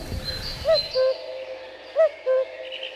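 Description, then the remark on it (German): A common cuckoo calls twice, each a clear two-note "cu-coo" with the second note lower, carrying cleanly over a quiet outdoor background with no one speaking. “Ja, der Kuckuck ist ein ganz, ganz typischer Zugvogel, der ebenfalls in Afrika überwintert.”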